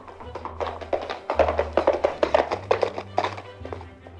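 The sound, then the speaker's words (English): Horse hooves gallop in a quick, steady rhythm of thudding beats over a low background rumble, moderately loud for about four seconds. “Sybil was a fantastic horse rider, so her father entrusted her with a dangerous mission to warn everyone that the British were coming.”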